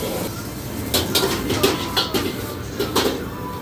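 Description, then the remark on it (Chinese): A busy restaurant kitchen where fried rice is cooked: a steady roaring hiss runs throughout, broken by irregular bright metallic clanks like a spatula striking a wok, with no voices. “然后，嗯，跟大家分享一下，我最近中午很喜欢吃炒饭，所以这个是我最喜欢去的那间店厨房里面的声音。”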